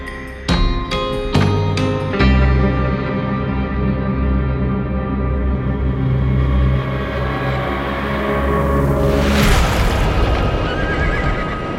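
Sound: horse neighing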